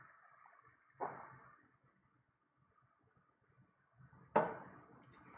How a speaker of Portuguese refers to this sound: Só um instante, beber água aqui que eu já falei muito hoje.